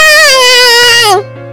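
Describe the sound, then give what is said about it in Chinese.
A voice imitates a baby's loud, wavering wail on an airplane as it takes off: one sustained, high-pitched cry that bends downward and breaks off, followed by a steady low hum. “飞机起飞时，他们听到一个小宝宝在哭闹，啊！”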